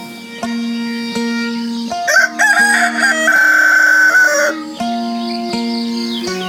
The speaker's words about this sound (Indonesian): Ayam-ayam pun mulai berkokok.